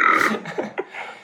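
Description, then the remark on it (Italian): A loud burp rings out, followed by a couple of shorter, softer gulping belches trailing off within about a second. “Partono anche i rutti, ragazzi.”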